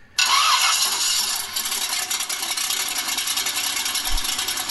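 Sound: car engine starting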